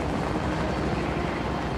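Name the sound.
helicopter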